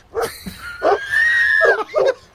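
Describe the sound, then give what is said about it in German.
A large livestock guardian dog barking in an aggressive tone gives a few sharp barks, then a drawn-out, high whining howl, followed by one more bark. The sounds are loud, with no talking. “Die Herrenschutzhunde haben die immer begleitet, haben die verbellen die in einem aggressiven Ton bellen die denn?”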